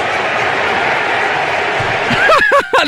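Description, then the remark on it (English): A baseball stadium crowd in Philadelphia roars steadily in a dense, continuous wash of noise, then swells near the end as loud, rising shouts and whoops break out above it as the crowd cheers a player. “they were the crowd goes wild.”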